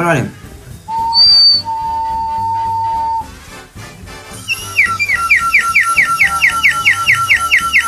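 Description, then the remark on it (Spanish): A spirit-caller whistle is blown: first long steady high-pitched tones, then a rapid warbling trill of repeated rising chirps, loud and shrill over a faint background murmur. “Una abeja un llamador de espíritus. Sople, sople, sople, amigo.”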